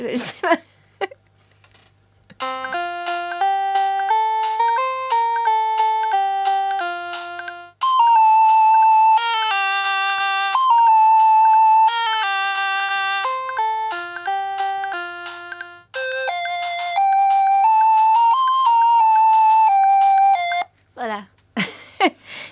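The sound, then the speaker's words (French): A short, bright melody of clean electronic tones played on small synthesizers, the kind that opens each of their concerts, plays alone, stepping through a simple tune with steady note changes, bookended by brief bits of talk at the start and end. “Donc à chaque euh, concert, on commence toujours euh, avec ces petites mélodies euh, pendant quelques secondes, juste pour donner au public l'idée voilà, d'où vient toute la musique, que ça vient de ces petits synthés.”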